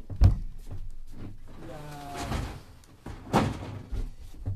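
A door is handled and closed, with a sharp thud at the start, a brief creaking slide in the middle and a couple of further bumps as it shuts, with no one speaking.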